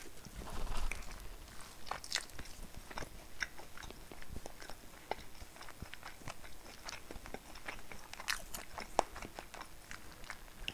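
Steady crunchy biting and chewing of bread during a lunch break, with irregular crisp bites and softer mouth sounds repeating throughout at a moderate, quiet level, with no talking.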